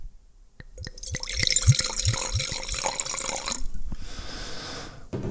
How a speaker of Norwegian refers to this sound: Jeg må bare helle litt, for jeg kjenner at jeg bare, altså dette syns jeg er så digg. Jeg syns det er skikkelig sånn digg vin, så jeg må bare helle til glasset her.